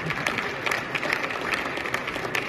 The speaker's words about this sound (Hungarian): Volodomir Zelenszkit vastaps fogadta. A láthatóan elfogódott elnök beszédében úgy nyilatkozott, a taps nem neki szól, hanem mindazoknak, akik harcolnak az orosz agresszió ellen, vagy segítik ebben Ukrajnát.